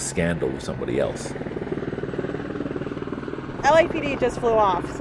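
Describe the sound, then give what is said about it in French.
A Los Angeles Police Department (LAPD) helicopter's steady rotor drone fills the background throughout, rising and lingering as it flies overhead, while people talk intermittently over it. “L'hélicoptère de la LAPD, Los Angeles Police Department, vient de nous survoler.”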